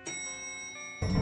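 A single soft elevator arrival chime rings and sustains with a steady, bell-like tone as the elevator arrives and its doors open in a dimly lit store, then a louder, broader burst of noise cuts in near the end.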